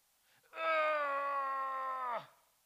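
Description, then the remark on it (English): A single voice lets out a long, strained groan, held steady for over a second at moderate loudness before dropping off abruptly. It imitates the effortful noise of someone straining while contorting their body to reach around and hand over a water bottle. “I'm straining. That's a straining noise.”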